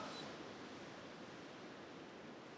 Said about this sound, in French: Prends une grande inspiration et écoute le bruit des vagues qui glissent sur le sable chaud vers tes pieds.